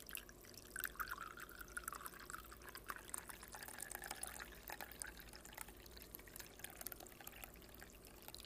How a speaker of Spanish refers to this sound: Ahora lo va a servir en la taza de cerámica. En este momento va a tomar la prensa francesa por el mango y se va a escuchar cómo va a servir el café en la taza.